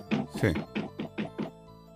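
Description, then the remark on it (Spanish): A voice imitates rhythmic knocking heard through a wall, as if someone were hammering, about six short, evenly spaced knocks that start strong and become slightly softer, fairly loud, with no other talk. “escuchamos acá cosas, se escucharon, se escuchaban como si le pegaran algo, como si estuvieran martillando.”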